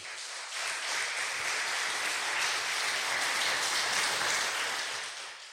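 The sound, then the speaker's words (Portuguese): An audience applauds for Jesus during a sermon, steadily for several seconds, a dense, even wash of many hands clapping that swells quickly, holds at a constant level, and tapers slightly at the end. “Aplausos para Jesus, irmão.”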